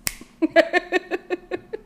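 A quick run of finger snaps, about nine or ten crisp clicks in a steady, rapid rhythm at moderate loudness, with no talking.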